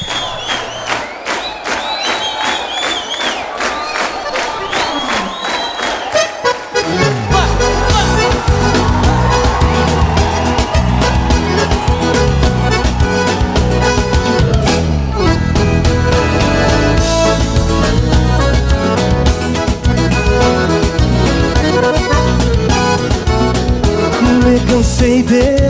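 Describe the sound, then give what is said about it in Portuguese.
A song plays loud, opening with a lighter, crowd-like stretch before a full band with heavy bass and a steady driving beat takes over after about seven seconds. “E é a música que vamos ouvir agora e apresentar à audiência da Rádio Gaúcha”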